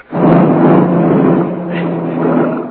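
A car engine roars loud as the car is made to speed up, holding a steady, rumbling drone as it accelerates for a few seconds, with no voices over it.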